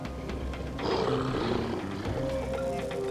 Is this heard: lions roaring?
yes